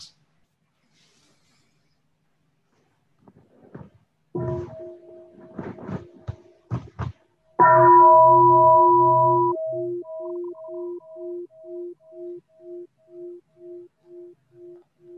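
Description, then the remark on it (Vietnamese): After some soft taps and rustling, a large mindfulness bell is struck once by a Buddhist nun, loud, its deep tone ringing out with a slow wavering pulse as it fades gradually. “Xin sư cô thỉnh một tiếng chuông để cho mọi người à, relax.”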